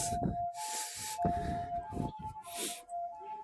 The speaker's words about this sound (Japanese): あ、救急車だ。これはこっちには来ないやつだな。はい、こんなやつです。